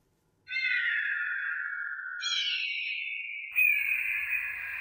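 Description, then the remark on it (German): Three long, loud, piercing screeches follow one another closely, each a harsh drawn-out cry that slides slightly downward in pitch, an imagined pterosaur call as paleontologists picture the sounds of flying reptiles. No one speaks. “So jedenfalls stellen sich Paläontologen die Geräusche von Flugsauriern vor.”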